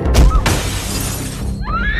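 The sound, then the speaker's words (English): A loud crash of window glass shattering as Max Shreck pushes Selina out of the window, with a heavy thud followed by a sustained spray of breaking shards that cuts off abruptly, then a rising high-pitched wail at the end. “And in a fit of rage, he pushed Selina out the window.”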